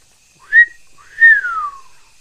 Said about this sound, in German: Er sah zu mir und fing das Pfeifen an.